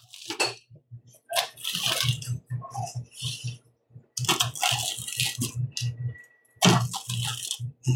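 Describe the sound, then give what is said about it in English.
Thin-crust pizza crust crunching loudly in a quick, steady rhythm of crisp, crackly bites, broken by a couple of short pauses, with no talking. “You can hear that crust.”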